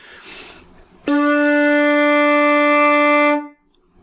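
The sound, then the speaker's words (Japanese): A shakuhachi bamboo flute of the standard 1.8-shaku (isshaku-hassun) length, blown normally, sounds a single long D (re) note, steady and loud with a rich, reedy tone, held for a couple of seconds before stopping abruptly, with no talking. “これ普通に吹くと、ドレミファソアシドのレの音がなるんですね。”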